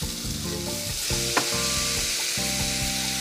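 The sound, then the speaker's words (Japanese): Steady, loud sizzling hiss of one or two tablespoons of water added to a hot pan and stirred in, crackling continuously for the full few seconds with a brief sharper pop midway, over a soft tonal background. “バーっとこう吹いて音がしますけれども慌てずに混ぜていきます混ぜるとこうなんか塊粘土みたいな塊になってくるんですねまとまってきます”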